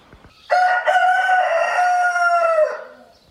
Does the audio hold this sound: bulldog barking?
no